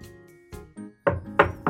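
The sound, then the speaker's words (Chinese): Knocking on a door: a few solid, hollow thumps in an uneven rhythm, the last ones louder and sharper, with no voices. “是我，快开门呢，宝贝儿。”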